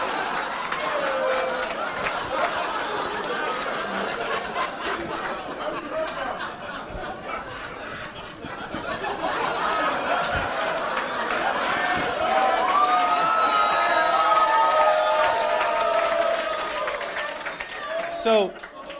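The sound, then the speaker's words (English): A crowd cheers and applauds steadily for a comedian called up to the stage, loud clapping mixed with whoops and shouts that swell in the middle, then fade near the end with a final sharp burst. “Good and loud”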